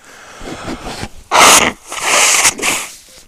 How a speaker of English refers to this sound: Oh, is that first time blowing my nose on the on the microphone?